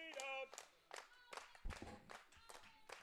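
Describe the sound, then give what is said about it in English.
A wrestling crowd claps in a steady rhythmic beat, roughly two claps per second, with voices shouting and cheering over it in support of wrestler CW Anderson as a match starts, moderately loud. “Crowd is fully behind CW Anderson.”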